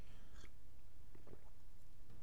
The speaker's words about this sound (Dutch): Dan moet ik even een slokje water nemen.